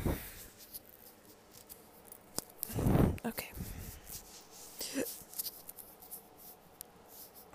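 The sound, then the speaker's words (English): Soft rustling and shuffling of someone uncomfortably shifting around in a seat, with scattered rubs and a fuller burst of movement midway; fairly quiet, and a voice briefly says a word. “Sorry about the shuffling around. I'm just uncomfy.”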